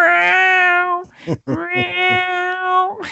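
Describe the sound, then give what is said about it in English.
A cat lets out two long, loud, drawn-out meows, each held at a steady pitch like a plaintive yowl, separated by a brief break. “Middle of the Night Meowing”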